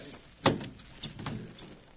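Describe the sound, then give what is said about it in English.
The heavy door of an old safe is pulled open with one sharp metallic clunk, followed by a softer low scraping and rumbling as it swings. “Pull the door open and get the gold out.”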